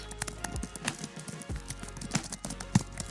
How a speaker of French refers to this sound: ordinateur, enfin le clavier d'un ordinateur.